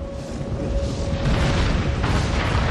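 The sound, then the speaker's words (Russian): A deep, rumbling explosion roars continuously, loud, with heavy low-end booming and a harsh crackling wash that swells brighter near the end. “будет находиться над восточным полушарием, то она будет отброшена взрывом и притянется солнцем.”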